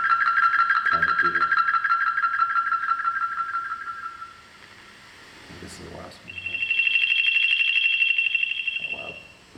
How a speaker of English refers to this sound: somewhat like a somewhat like an airport beacon or a sonic lighthouse signaling the field work team's lo- location. A cosmic beaconing, cosmic beacon is what the tones are.